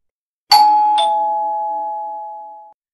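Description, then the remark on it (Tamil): A loud two-tone doorbell chime rings once at a home around 11:40 at night, a bright 'ding' then a lower 'dong', with the tones ringing out and slowly fading away. No voices are heard. “திடீர்னு உங்கள் வீட்டோட காலிங் பெல் அடிக்குது அப்படியே அந்த காலிங் பெல் சத்தமாக அடிக்குது”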